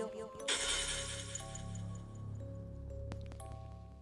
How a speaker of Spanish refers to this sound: Entonces tomé una botella de vino que tenía abajo de mi cama y empecé a darle con él. A la muñeca. la botella se rompió